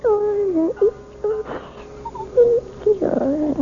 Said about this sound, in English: You sound like a happy baby to me